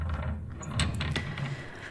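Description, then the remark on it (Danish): A quiet mechanical click and rattle of the handle of a door to the kitchen being pressed down very slowly, followed by the soft creak and shuffle of the door easing open. “Vi sidder et par piger i sengen for at sige farvel, og så videre, og ser så alle sammen, at dørhåndtaget ud til køkkenet meget stille trækkes ned, og at døren åbner.”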